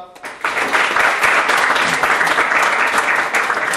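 An audience breaks into sustained, dense applause, many hands clapping at once in a steady, loud wash of bright crackling that starts abruptly and holds evenly to the end.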